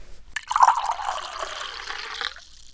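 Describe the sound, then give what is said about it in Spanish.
Water pours steadily into a glass for about two seconds, clear, the gurgling pitch rising as the glass fills before the stream stops. No one speaks. “Digo, ¿tomás un poquito de agua? ¿Cómo no?”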